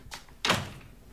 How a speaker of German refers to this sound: Und schließt die Tür.